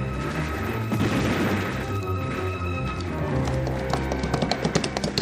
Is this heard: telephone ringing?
no